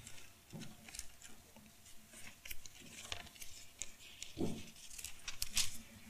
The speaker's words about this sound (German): Lasst uns da kurz blättern. Sprüche 2.